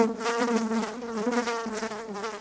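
A fly buzzes steadily, its droning hum wavering slightly in pitch and loudness without pause for a couple of seconds, with no voices.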